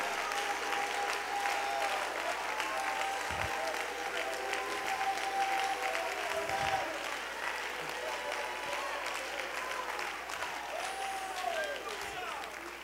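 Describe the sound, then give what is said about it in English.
A church audience claps their hands unto the Lord for several seconds in response to a sermon, while voices cheer and call out over the applause, the noise staying loud and dense throughout. “If this word is helping you, clap those hands and lift up your voice.”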